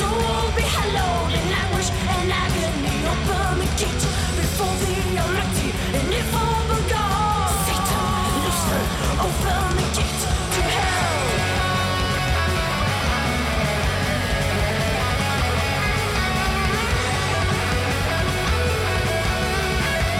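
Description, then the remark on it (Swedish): Loud, dense heavy metal plays throughout, with distorted guitars and pounding drums filling the mix while a shouted, heavily reverberated vocal soars over the top. “Alltså det låter väl som schysst heavy metal?”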